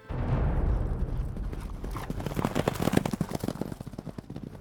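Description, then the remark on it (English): Hooves of Sleipnir, Odin's horse, ridden by Hermod into the underworld, clip-clop in a quick, steady rhythm of sharp knocks, rising out of a low rumbling start and continuing moderately loud, with no voices. “Hermod, one of Odin's sons, volunteered and took his father's horse Sleipnir to travel into the underbelly of the Nine Worlds”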